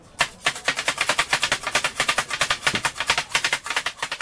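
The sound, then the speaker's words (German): Rapid, rhythmic clanging of metal blades chopping kottu roti on a hot griddle, sharp bright strikes repeating steadily several times a second without pause, with no one talking. Street food in Sri Lanka. “das gehört, das ist eigentlich etwas Spezielles bei Kotrot, ja, dass man das rhythmisch so verhackt, ist wie ein Lockerruf, mit Leuten können wir essen, oder?”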